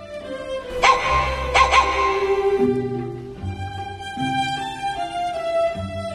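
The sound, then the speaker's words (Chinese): A dog in the snow barks twice in quick succession, short sharp yaps near the start, over a steady, gentle melodic music backing that carries on after the barks stop. “小鸡画竹叶，小狗画梅花”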